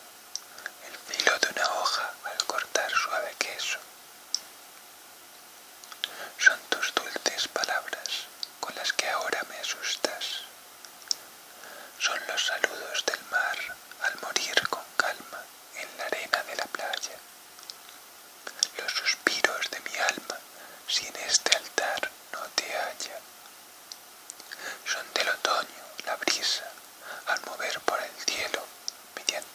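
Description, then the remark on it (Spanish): Soft whispering of the letter S pronounced many times, breathy hissing sibilants repeated again and again in uneven bursts, no voiced speech, just airy S-like sounds rising and fading in clusters. “susurros. ¿Qué son? Me preguntas. El sonido de las S pronunciadas muchas veces.”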